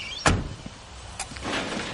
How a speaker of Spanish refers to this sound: Walt sube la persiana del almacén.